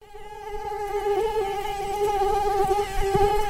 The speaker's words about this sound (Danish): myg. Selvom myggestik øh, kan være voldsomt irriterende, så har vi i Danmark været vant til, at øh, det er det største problem med det her lille insekt.